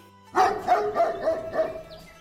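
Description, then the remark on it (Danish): A dog barks about five times in a quick, steady run of sharp, fairly loud yaps, with no talking over it. “Det er en hund, der gør.”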